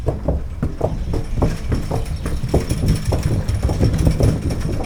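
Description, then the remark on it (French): Repeated hollow hoof clops of a horse walking across a bridge overhead, recorded with microphones placed directly under the bridge, in a steady, uneven rhythm, muffled and booming over a low rumbling background. “On entend, on entend les sabots du cheval qui tapent au-dessus de nos têtes.”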